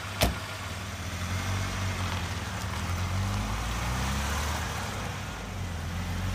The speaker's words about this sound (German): Oh, da ist unser Taxi.